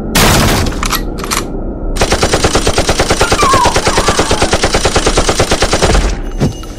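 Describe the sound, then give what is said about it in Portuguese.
Rapid submachine gun fire rips out in loud bursts, a short opening volley followed by a long sustained string of evenly spaced shots lasting about four seconds before cutting off. “Rajadas de submetralhadoras queimaram o ambiente molhado de sangue, vísceras e medo, acertando cada um dos defuntos ambulantes presentes, vindas da porta direita.”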